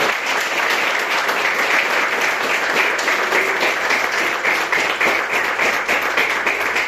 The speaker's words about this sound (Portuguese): Pronto, pode aplaudir a Jesus, irmão.